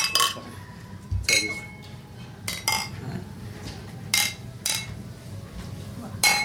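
Beer glasses clink together in a toast several times in an irregular series, each bright tap leaving a short ringing tone, over a low murmur of background noise.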